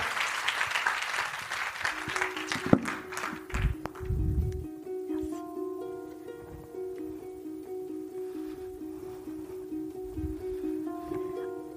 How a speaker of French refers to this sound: Donc on va l'applaudir très très fort, on va lui donner plein de courage, plein d'audace, et bon spectacle, profitez bien.